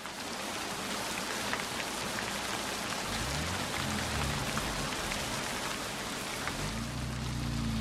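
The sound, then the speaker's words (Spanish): Heavy rain pours down steadily, a dense, loud hiss of drops drumming on surfaces, with a low rumbling undertone that swells in places and no voices. “llueve a cántaros. No, no es justo que el pobre Matarazo me espere inútilmente bajo este diluvio”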